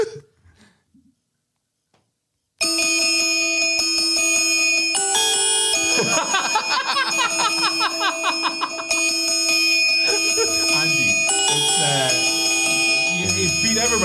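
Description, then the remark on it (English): After about two seconds of silence, a loud theme tune played on bells kicks in abruptly, ringing with layered, sustained chiming tones and a busy melody that continues to the end. “Um, what is this? The theme of bells.”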